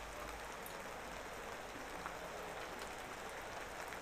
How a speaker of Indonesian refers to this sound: Iya, gerimis. Jadi nunggu bentar deh.